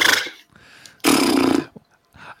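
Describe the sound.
A person imitates a horse with a short breathy snort, then a loud, raspy, drawn-out whinny lasting about half a second, followed by a faint final snuffle.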